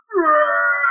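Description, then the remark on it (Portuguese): A single drawn-out burp, voiced in imitation of how relatives from Portugal burp, starting with a low gurgling onset and holding a steady, moderately loud buzzy tone for nearly a second with no talking over it. “Eles dão um arroto assim, ó.”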